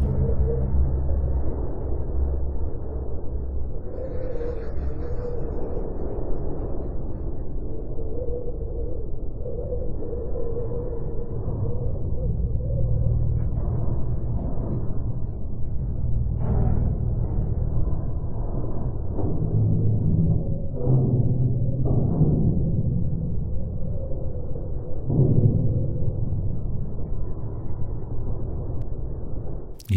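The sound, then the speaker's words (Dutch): Electromagnetic radiation from the planet Mars converted to sound: a deep, steady rumbling drone with shifting whooshes and faint tonal swells, continuous and fairly loud throughout, with no voices. “Dus Mars als planeet klinkt zo.”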